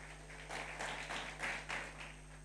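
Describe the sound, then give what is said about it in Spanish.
An audience briefly applauds the multimedia team, a soft patter of many hands clapping that swells and fades over a couple of seconds, with a steady low electrical hum underneath. “Creo que es la primera vez que pido un aplauso para multimedia.”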